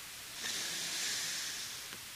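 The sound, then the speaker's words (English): A single long, steady breathy hiss of cigar smoke being retrohaled, blown out through the nose without coughing. The cigar is 11-year-old Dominican tobacco. The hiss lasts about a second and a half, soft and airy, with no talking. “He's taking the smoke in his amp, blowing out of his nose, and not coughing.”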